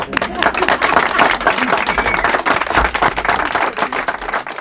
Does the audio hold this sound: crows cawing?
no